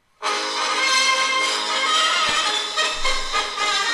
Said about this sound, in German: Ich überspiele das jetzt mit dem bayerischen Defiliermarsch fertig ab.